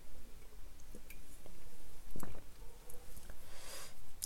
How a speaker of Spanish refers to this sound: Sorbo.